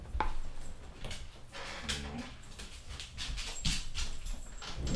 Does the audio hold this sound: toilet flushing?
no